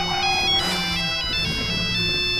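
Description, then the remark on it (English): A melodic phone ringtone plays clearly and steadily, with stepped electronic tones in a repeating pattern, fairly loud with no voices over it. “We don't know if these calls are real.”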